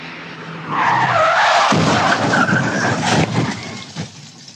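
Tires screech loudly as a car skids, then a sudden heavy crunch of impact hits as a car driving at a speed of 120 rear-ends another car, followed by a rough rumble of scraping metal and rattling debris settling.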